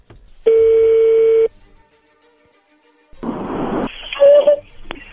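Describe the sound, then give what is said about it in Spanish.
A telephone call to someone's girlfriend going through: one steady electronic ring tone lasting about a second, a short quiet gap, then louder crackly line noise with brief beeping tones, with no talking. “Ya entró ahí la llamada”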